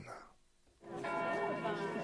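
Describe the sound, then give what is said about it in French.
Church bells ring at noon after a brief lull, their overlapping tones sustained and fairly loud, as about a hundred people gather outside the town hall of Blois, France, with a murmur of voices underneath. “C'est sous les cloches de midi qu'une centaine de personnes se sont réunies devant la mairie de Blois.”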